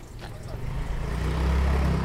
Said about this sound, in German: Das Postauto fährt vom Bahnhof Lugano aus und hält gleich bei der Kirche von Sala Capriasca.